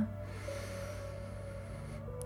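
A long, deep breath drawn in through the nose during a guided meditation, steady, lasting about two seconds before stopping, over a soft sustained musical drone with no talking.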